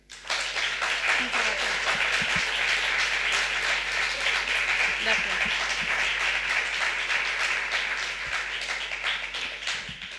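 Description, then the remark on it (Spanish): Sustained applause from an audience welcoming the writer Elvira Sastre as a guest on the programme El Hombre Luna, dense steady clapping filling about ten seconds at a consistent loud level, with faint voices murmuring underneath. “por eso el aplauso está acorde a la invitada que a continuación nos presentamos, porque está aquí con nosotros Elvira Sastre.”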